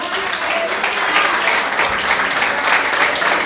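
An audience applauds for Jesus, a dense, steady wash of many hands clapping at full volume without pause, with faint voices mingled into the noise.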